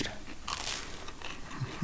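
Crunchy toast being bitten and chewed, with a dense series of sharp, crackly crunches throughout, a burst of bright crackle in the middle, at moderate steady loudness with no talking.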